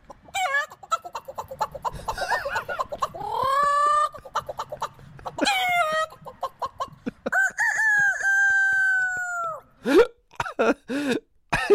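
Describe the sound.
An African man vocally imitates a farmyard hen yard, with rapid clucking chicken sounds and a long drawn-out rooster crow, then sharp squawks at the end. The sounds are loud, with no other talking.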